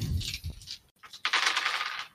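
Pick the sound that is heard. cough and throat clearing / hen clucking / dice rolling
dice rolling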